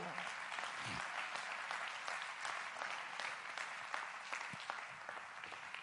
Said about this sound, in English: Clap your hands to you.